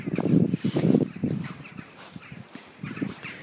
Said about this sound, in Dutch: En er gaan een hele hoop vogels eh, over mijn hoofd. Die zul je misschien wel horen.